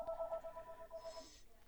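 A telephone rings with a steady, warbling electronic tone that holds for over a second, fairly faint and somewhat distant, with a brief hissy burst near the end.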